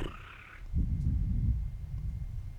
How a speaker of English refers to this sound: Boy, there's a lot of movement going on back there with my cat.